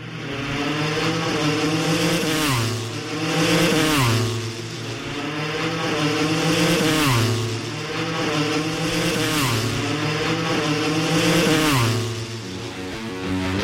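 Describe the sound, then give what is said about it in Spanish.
Loud motorcycle engines rev again and again, their pitch climbing and dropping in repeated surges every couple of seconds, a steady roaring drone with no voices. “y las motos.”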